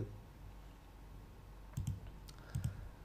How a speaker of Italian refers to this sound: Intanto sentite dei ticchetti, sono io che clicco, perché mentre attendo che voi mi rispondiate, io faccio altre cose. Sono multitasking ragazzi oggi.